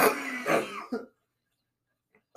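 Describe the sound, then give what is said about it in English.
A person coughs and clears their throat in a rough, raspy burst lasting about a second, then falls silent before a faint breath and another short sound at the end. “I'm trying to get my breathing back”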